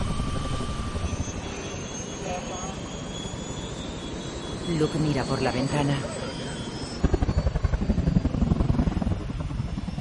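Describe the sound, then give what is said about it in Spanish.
A helicopter's engine and rotors roar steadily and loudly, swelling slightly as it lifts off with passengers aboard, while a voice speaks briefly over the noise. “El helicóptero se eleva.”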